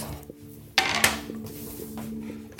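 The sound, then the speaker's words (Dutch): Red cutting boards for meat are pulled out and set down, making two sharp hard clatters a moment apart, followed by a low steady hum with faint knocks. “Hij pakt voor de luisteraar, hij de rode snijplankjes voor vlees.”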